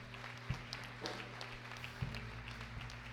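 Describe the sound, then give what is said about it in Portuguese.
A church audience applauding the Lord during a service: a dense, steady wash of many hands clapping over a low sustained hum, with a few heavier thumps standing out. “Aplauda o Senhor, igreja.”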